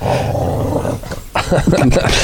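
Dogs growl and bark excitedly outdoors in a garden, agitated by a pair of pigeons building a nest overhead; a loud, continuous rumbling snarl that breaks briefly, then returns in sharper, agitated bursts.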